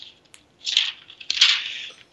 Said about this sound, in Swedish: Jag älskar när man hör dig sitta och bläddra i dina papper där.